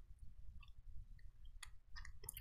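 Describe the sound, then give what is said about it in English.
Soft, sticky chewing of Airheads Bites chewy taffy candy, with a few wet smacking clicks toward the end over a low, muffled background; no one talks. “I mean, when you first put it in your mouth, is sugar. But as you chew it a little bit, and it gets softer.”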